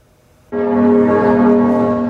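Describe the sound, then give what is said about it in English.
A large church bell strikes once and rings out loudly, its deep, rich tone and layered overtones humming steadily without fading; bells tolling at cathedrals across Paris, France, exactly 48 hours after the fire began at Notre Dame. “Bells tolled at cathedrals across the French capital exactly 48 hours after the fire began at Notre Dame.”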